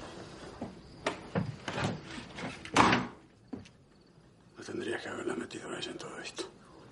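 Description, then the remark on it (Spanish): In a film scene, a man looks outside and shuts the house door: a few sharp clicks and rattles from the handle, then a single loud, full thud, followed by quieter murmuring voices. “Adrián observa el exterior de la casa y cierra la puerta.”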